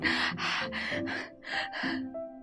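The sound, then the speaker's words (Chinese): Exhausted panting of Naonao, collapsed on a haystack after running to exhaustion: six quick, loud, breathy gasps in a steady rhythm, each a short rasping huff with a faint voiced edge, with no talking. “闹闹跑得精疲力尽，倒在一个干草堆儿上直喘气。”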